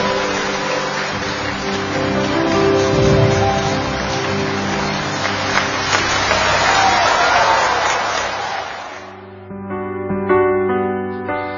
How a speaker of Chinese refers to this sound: 专门把剧场当中当时热烈的掌声保留了下来，大家可以感觉到整个气氛也是渐入佳境。